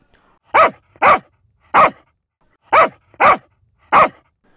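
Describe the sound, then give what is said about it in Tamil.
Rajapalayam Kombai dogs barking: six loud, full-throated barks, some coming in quick pairs with short pauses between, and no voices or other sounds in between. “ராஜபாளையத்து Kombai கிளம்பிவிட்டது”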